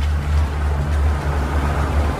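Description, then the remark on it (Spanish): A latest-model car's engine rumbles steadily, a low continuous drone with a slight rise and fall as the car rolls slowly forward into a garage through its opened gate. “Un auto último modelo ingresa.”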